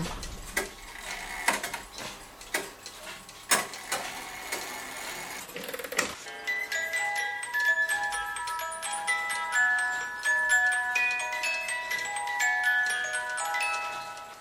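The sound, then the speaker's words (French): A radio time signal on Radio Campus Paris during the show Dimanche Récréation Sonore, leading into the sound creation news: sharp, irregular clock-like ticks and clacks for several seconds, then a dense stream of short, bright electronic pips at shifting pitches, with no voices. “Au quatrième top, il sera temps d'écouter le journal de la création sonore.”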